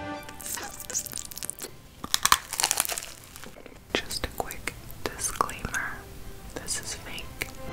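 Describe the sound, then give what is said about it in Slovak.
Soft whispering in an ASMR recording mixed with crinkling and rustling of plastic bags, with scattered sharp crackles and crisp swishes throughout, quiet and intimate. “ktorá mu môže tento zmyslový zážitok umocniť napríklad aj klopkaním nechtov o rôzne povrchy, šušťaním sáčkov, vzájomným trením rôznych predmetov a podobne.”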